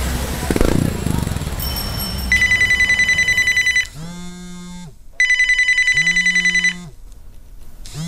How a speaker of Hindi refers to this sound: Phone has been ringing non stop the welding shops in Shaheen Bagh has become a hub for oxygen cylinder distribution and refilling to help patients and their desperate relatives.